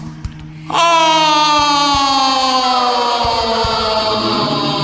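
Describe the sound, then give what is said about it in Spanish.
Car brakes suddenly screech as a driver brakes hard on a city street for a child crossing in front of the car, holding a long, loud, shrill squeal that slowly drops in pitch, with a few low thumps underneath and no voices. “De pronto fue el frenazo.”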